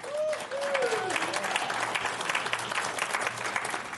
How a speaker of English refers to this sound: Give her a hand back there.